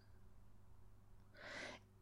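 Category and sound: bird, small bird calling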